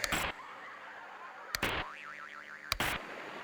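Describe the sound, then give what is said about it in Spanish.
An old television set: three chunky dial clunks, each with a short burst of static, and a wavering electronic whine between the second and third turns. Nobody speaks. “Era la televisión cuando tú eras el control remoto de tu casa.”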